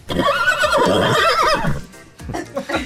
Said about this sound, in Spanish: Mi pregunta es por qué siempre te ponen un caballo. Ni tú sabes tampoco, ¿verdad?